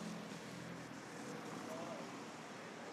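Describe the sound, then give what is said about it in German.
Traffic rushes by, a steady, fairly quiet wash of tyre and engine noise from passing cars that hardly rises or falls, with no single car standing out. “Ich lasse mal so ein paar Autos vorbeirauschen als Kommentar.”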